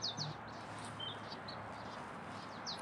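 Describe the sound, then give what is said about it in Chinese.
About five or six marsh tits calling in flight: quick, high-pitched chirps come in small bursts at the start and end, with fainter calls in between, over a steady soft hiss. “现在在我的眼前，有大概五六只的沼泽山雀在飞”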